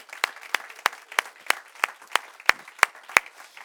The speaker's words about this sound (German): Und wir wollen diese Menschen höflich, aber doch stürmisch begrüßen mit einem enthusiastischen Applaus heute Morgen.